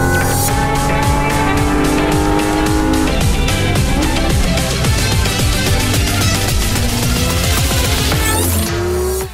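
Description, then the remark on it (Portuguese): A Porsche Cayman GT4 RS sports car, with a naturally aspirated 4.0 six-cylinder boxer engine of 500 horsepower, revs hard and continuously as it accelerates on the Velocitar racetrack circuit, pitch climbing through gear changes, with a faint tire squeal near the end and no voices. “Nós vamos dar largada no Máquinas na Pan dessa semana, acelerando um Porsche numa pista de corrida.”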